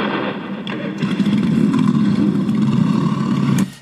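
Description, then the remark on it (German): At the end of an event held in praise of God, a loud, dense roar of many motorcycle engines revving together, a sustained rumbling wall of sound with rising throttle bursts, continuous until it cuts off abruptly. “ich darf euch bitten, zum Abschluss der Veranstaltung zum Lobe Gottes noch einmal eure Motoren sprechen zu lassen.”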